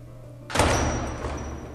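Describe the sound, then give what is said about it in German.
A door shuts with one solid thud partway through and is locked, its broad rumble fading slowly afterward over a steady low background hum. No voices are heard. “Der hat die Tür abgeschlossen.”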